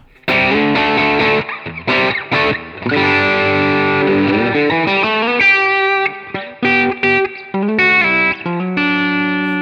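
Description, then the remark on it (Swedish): A heavily distorted electric guitar, gain at about two o'clock and bass cut raised to twelve o'clock, plays choppy chords and short riffs with abrupt stops, its tone thin and bright with little low-end weight, sounding alone with no talking. “Så det jag märker är att när man drar upp gainen, för gainen är nu på klockan två ungefär, då tycker jag att det låter bättre om man då tar lite basscut och höjer basscutten ytterligare då till klockan 12 rakt upp.”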